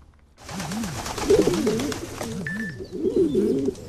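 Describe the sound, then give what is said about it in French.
Several pigeons, a colony nesting under a roof, coo continuously, their low, rolling calls overlapping in a steady, burbling chorus, with a brief faint chirp partway through. “Oh, saleté de pigeons Ils sont toute une colonie à nicher sous la toiture, juste au-dessus de mon lit.”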